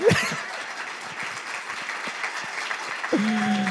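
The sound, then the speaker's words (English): An audience claps steadily in a dense, sustained burst of applause lasting several seconds, with a brief voice heard at the very start and another voice coming in over the clapping near the end. “But there's one more person, and I'm setting her apart to deserve special uh, applause and praise,”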